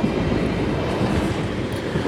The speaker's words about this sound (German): Da kommt der nächste Zug.